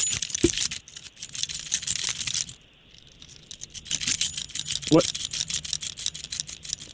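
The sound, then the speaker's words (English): Keys jingle and rattle in quick metallic bursts, a brief pause, then more bright jangling, fairly loud, with no voices. “Kind of creepy, huh, That's just the sound of your keys jingling.”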